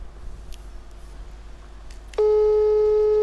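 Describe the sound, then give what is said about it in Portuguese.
A steady telephone ringing tone while placing a call starts abruptly partway through, loud, and holds unbroken to the end after a quiet stretch of faint background hum and line noise. “Estou a tentar ligar.”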